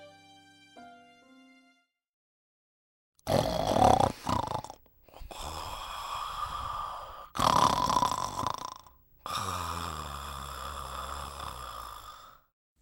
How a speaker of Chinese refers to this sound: 咦？这个是什么声音呢？羊妈妈循着声音看了过去，原来是在树下睡觉的野狼先生。他的打呼声实在是太吵了，连树叶都跟着一起震动。